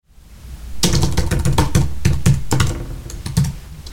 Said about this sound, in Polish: w momencie, gdy nadajnik leży obok klawiatury, na której aktualnie piszę te słowa